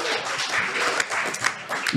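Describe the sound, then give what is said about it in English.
A live audience applauds a guest being introduced, a dense wash of clapping that stays even for the whole two seconds, with a few voices faintly mixed in. “Round of applause”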